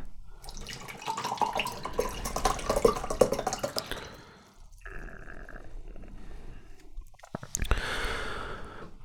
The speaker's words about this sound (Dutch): Ik zie er echt op tegen om dit drankje leeg te drinken. Ik neem nog een paar slokken. de rest ga ik even in een glas leeggieten.